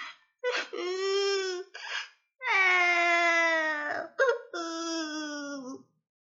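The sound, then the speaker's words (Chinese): Loud, drawn-out wailing cries of the story character Elli in three long bursts, separated by sharp gasping breaths, with a strong harmonic, sobbing quality that rises and falls in pitch. “艾丽大哭了起来。”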